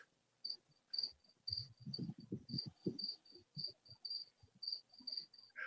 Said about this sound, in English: Scott's got crickets